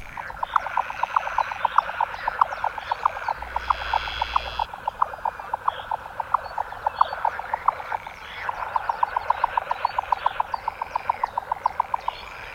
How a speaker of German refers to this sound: Ja, das ist sie, die Zwergschnepfe. Und dieser Ruf ist weit zu hören, obwohl die doch so klein ist.